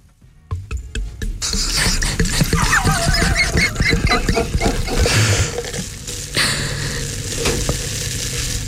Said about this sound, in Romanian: Ei, noi deschidem o sticlă, hai să vedem.